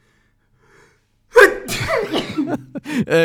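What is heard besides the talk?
sneeze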